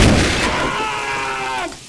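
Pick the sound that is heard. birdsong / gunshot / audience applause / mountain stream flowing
gunshot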